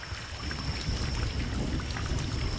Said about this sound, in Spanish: Cuando despiertan, llueve a cántaros.